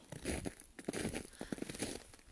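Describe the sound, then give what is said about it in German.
Footsteps crunch through snow in a forest in a steady walking rhythm, each step a soft, crisp compacting crunch, moderately quiet, with no talking. “was ihr im Hintergrund hört, sind meine Schritte im Schnee”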